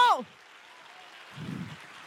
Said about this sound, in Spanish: Y si hay alguien aquí de propósito, que le dé fuerte el aplauso al Dios del, al Dios del, al Dios del propósito.